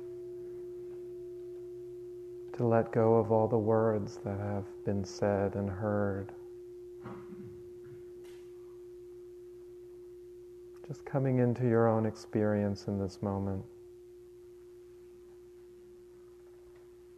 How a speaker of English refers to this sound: Allowing the words to fade away as the sound of the bell fades away.